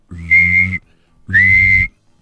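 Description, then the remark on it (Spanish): Two loud, sustained blasts on a whistle, each lasting well over half a second with a short pause between them, shrill with a breathy edge. “Recuerden que mi segmento es equivalente cuando vieron la película de Titanic, que todos estaban hundiendo y todo, y llegó un barco donde llegaban con un silbato, con un silbato y decían,”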